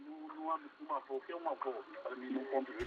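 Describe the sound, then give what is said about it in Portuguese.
A radio plays a talking voice, thin and boxy, speaking steadily at moderate volume for a few seconds with brief pauses between phrases. “Pode continuar e também, se possível, baixar um pouco o som do rádio.”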